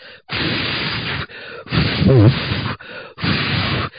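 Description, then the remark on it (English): A person imitates a fart with their mouth, making several loud, breathy sputtering bursts with brief pauses between them, one rising into a wobbly voiced squeal. “I don't know what it is, but when I fart, it sounds like this.”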